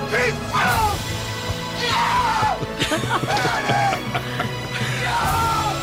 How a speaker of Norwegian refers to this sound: Og i tillegg så jubler han altså så jeg har ikke hørt lignende